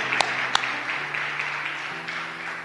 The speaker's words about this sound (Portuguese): Dê um aplauso a Cristo nesse momento. Lo podemos fazer?